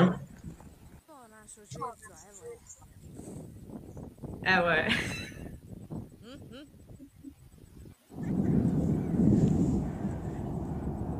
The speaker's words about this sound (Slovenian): Gezir. Gezir. To je tudi na tej krožni poti.